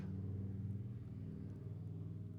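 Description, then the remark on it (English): A motorcycle engine rumbles steadily in the background, a low, throaty drone that holds fairly even and shifts pitch slightly as it passes, with no voices present. “Even with the motorcycle roaring by in the background, because our settings can never be ideal, and that's just part of the practice.”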